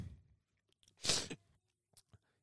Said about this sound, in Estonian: ma loodan, et saan selle saate kohe purki, et ei peaks minu seda tati luristamist rohkem kuulama